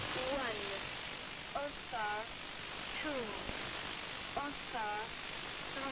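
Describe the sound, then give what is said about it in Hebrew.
Steady shortwave radio hiss fills the whole recording, with several brief warbling, voice-like tonal bursts and sliding whistles cutting through at irregular intervals, from E10, a covert numbers station reportedly run from Tel Aviv, Israel, likely by Mossad, broadcasting on AM from the 1960s until about ten years ago. “הקולות והצלילים הללו שייכים לתחנה שכונתה E10, תחנת רדיו סמויה שפעלה לפי מקורות זרים בישראל החל משנות ה-60 של המאה הקודמת ועד לפני כעשר שנים.”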